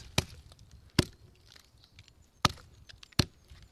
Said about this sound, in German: Also wir könnten den Baum jetzt mal anklopfen, da hört man ein bisschen was. Ich hole jetzt mal einen Stein und dann klopfen wir an den Baum hin. So, jetzt müssen wir schauen, ob das klingt.